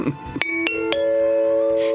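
A three-note ding-dong-dang correct-answer chime rings out clearly, each bell-like tone struck in quick succession before the final note sustains and slowly fades, with no talking over it.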